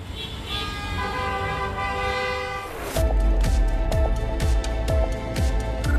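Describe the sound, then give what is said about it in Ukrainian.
Sustained car horns blare together for a few seconds, then give way to steady, booming drumbeats with short honks cutting in between, loud and busy, at a street rally supporting prisoners of war on Shevchenko Boulevard, heard from an underground passage below. “а наверху не стихає гул автомобільних сигналів і періодичний лай собаки.”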